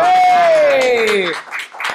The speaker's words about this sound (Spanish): se escucha muchos aplausos, que hay un chorre cabrones detrás de las cámaras.